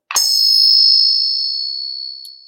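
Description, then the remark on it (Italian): Two metal faucets, taken from clients' homes by a former plumber and played as instruments, clink together with one sharp strike that rings out in a high, bell-like tone and slowly fades, followed by a faint second tap near the end. “Sono rubinetti rubati da casa dei clienti, perché io sono un ex idraulico e ti faccio solo sentire il suono.”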